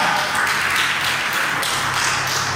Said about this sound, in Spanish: ¿Cuántos alaban a Cristo? Esa señora, denle palmas al Señor, hermano, esa señora.